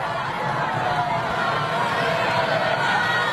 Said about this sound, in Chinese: 人山人海，盛况空前。欢迎民众站在高坡上，从住宅楼的窗台上向中国贵宾欢呼致敬。到处都是热情的笑脸，友好的欢呼声不绝于耳。